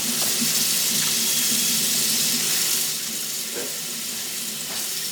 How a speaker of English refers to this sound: so I'm just going to rinse this off with some good old fashioned tap water. He's rinsing it off with tap water. Just to get rid of it.